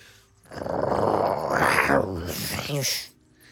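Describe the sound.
A person growls like a bear: one rough, rumbling vocal growl lasting a couple of seconds, rising briefly in the middle and ending with a short throaty gurgle.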